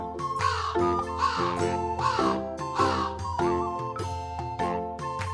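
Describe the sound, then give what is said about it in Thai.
A crow caws repeatedly, harsh raspy calls in a steady rhythm, about one or two per second, loud and without talk, over a faint sustained ringing tone. “วันหนึ่ง ขณะที่เขาเดินอยู่ในกรม อีกาเห็นเขาจึงส่งเสียงร้องทักทาย”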